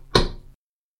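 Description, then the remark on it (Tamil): A single sharp knock on a house's front door, fairly loud, with a short ringing decay that fades within half a second before silence. “அப்போது வாசல் கதவை தட்டும் ஓசை கேட்டது”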